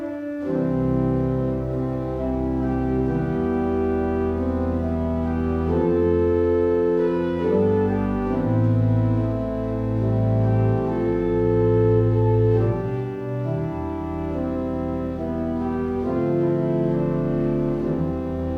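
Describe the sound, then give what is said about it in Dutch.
A church pipe organ plays a slow, sustained piece with rich held chords and a deep bass line at a strong, even volume, with no voices. “En gaan we even luisteren naar jou op het orgel.”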